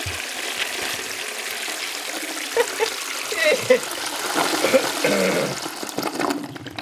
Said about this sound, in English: I'm going to make this four for four and uh, give this a flush.